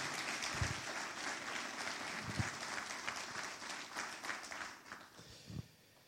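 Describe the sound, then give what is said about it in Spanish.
Sustained applause from a crowd giving the Lord a hand clap, a dense wash of many hands clapping at a steady loudness for several seconds before easing off at the end. “Alguien le da un aplauso fuerte al Señor. Give the Lord a hand clap, please.”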